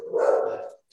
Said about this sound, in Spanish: perdón por los ladridos